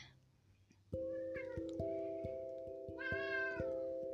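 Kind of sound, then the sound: animal, cats meowing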